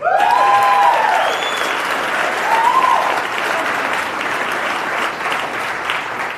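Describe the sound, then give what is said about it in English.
A crowd claps loudly and steadily for several seconds, with a couple of sharp whistles rising above the applause near the start. No one speaks. “You didn't let me finish Fauci Unmasked with Michael Knowles, so there's no need to clap. Absolutely no need to clap.”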